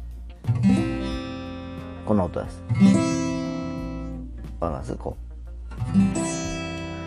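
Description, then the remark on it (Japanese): A G chord on an acoustic guitar is plucked with the fingers, without a pick, several times with a slight fret buzz, each strum ringing out, while a man speaks briefly between the strums. “今回は前回とは違う G コードということで、比較的、あのビビリ音がなかったんですけどね。まあ、あの、ビビリ音って皆さんどういう音かっていうとですね、こんな音なんですよ。”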